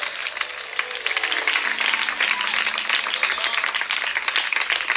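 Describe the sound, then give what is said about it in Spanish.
A crowd claps and applauds for Christ steadily for several seconds, a dense, continuous wash of many hands, with faint voices and a low tone humming underneath. “Dele las palmas a Cristo, pues que Dios le está mandando el último mensaje a algunos en esta noche poderosa.”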